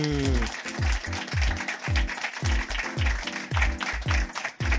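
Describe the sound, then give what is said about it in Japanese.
An audience, counted in with three-two-one, claps hard and fast with all their strength as applause practice, a dense, loud wash of hand claps that fills the whole stretch, with a repeating low swooping tone pulsing underneath. “とあの力強くこう拍手をするとですね無条件に気持ちが盛り上がりますのでちょっとやってみましょうじゃ僕321拍手って言ったら拍手してみましょう OK ですかじゃみんなであのあらん限りの力を振り絞って拍手をしてみる OK でしょうか321拍手”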